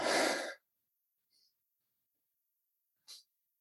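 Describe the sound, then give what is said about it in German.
A dog moves about in an apartment: a sharp snorting huff, then a faint metallic tinkle and a brief scratchy rustle, with quiet gaps between. “Hier läuft ein Hund durch die Wohnung.”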